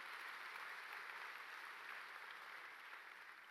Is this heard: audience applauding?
yes